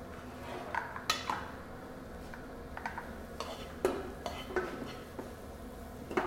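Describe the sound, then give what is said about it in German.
A frying pan is shifted about and carried over to a cutting board, with scattered knocks and metallic clinks of cookware at an uneven pace, over a low steady kitchen background hum. “Du könntest mal mit der Pfanne rüber zum Brett kommen.”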